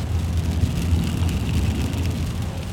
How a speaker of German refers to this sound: Und jetzt fängt es wieder an zu regnen. Achtung, ganz kurz mal eine Nahaufnahme vom Regen.